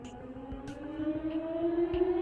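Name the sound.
siren sound effect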